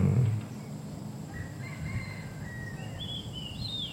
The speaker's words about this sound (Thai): เสียงนก เสียงไก่ เสียงสายลมพัดต้องใบไม้